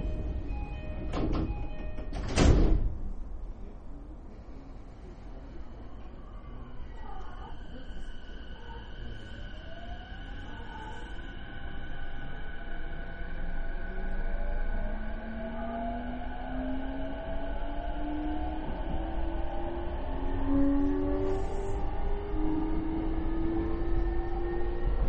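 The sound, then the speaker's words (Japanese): Train doors slide shut with a brief thump, then a train departs from platform 1, next stop Futamata-shinmachi, its motor whine rising steadily in pitch over a continuous rumble; no one speaks. “1番線電車が発車しますドアが閉まりましたらご注意ください”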